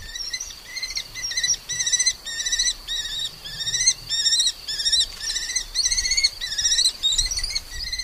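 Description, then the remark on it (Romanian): A lesser kestrel's calls: a long run of sharp, high, raspy notes repeated in quick rhythmic bursts, about one or two per second, steady, over a faint low rumble. “Obiceiul acesta și penajul brun roșiatic al spatelui ne-au făcut să-i dăm păsării numele de vânturel roșu.”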